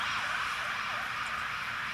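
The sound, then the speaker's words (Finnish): An ambulance siren wails steadily outside as the ambulance drives past, its rising and falling tone continuous over a broad hum of traffic, with no one speaking. “odotaan, että tuo ambulanssi tuosta ajaa ohi, toivottavasti kenelläkään ei ole hätää.”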